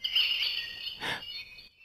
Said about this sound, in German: Oh, Vogelgezwitscher. Ja, ja, genau.